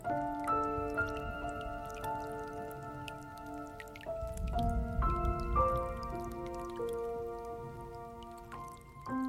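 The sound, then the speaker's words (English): Rain dripping in a steady, monotonous patter, with soft sustained musical tones ringing over it throughout. No one speaks. “living as I do in a big city remote from my old home, I invariably feel homesick listening to the harsh, monotonous drip, drip, drip of the rain.”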